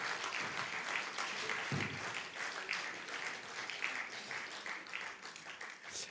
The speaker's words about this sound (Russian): Давайте наших левитов поблагодарим. Всегда, когда они спускаются, мы им хлопаем.